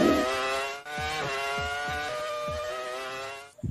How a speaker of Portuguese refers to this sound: o Nibra acabou colocando um som de motor da F1 que a gente tem saudade